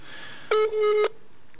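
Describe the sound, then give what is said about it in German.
A short burst of telephone dialing tones of an outgoing call, steady electronic beeps with a brief dip in the middle, lasting about half a second over a faint background hiss. “Wir, wir drehen jetzt mal den Ton ein bisschen lauter von Herrn Kabers Mikrofon, damit man Frau Pangili am Telefon auch verstehen kann.”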